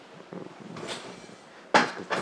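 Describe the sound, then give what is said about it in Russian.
A door is pushed shut with a single solid clunk and a brief rattle after it, preceded by soft shuffling and handling noises. “Слушай, я а прикрой дверь, там все, это все будет писаться.”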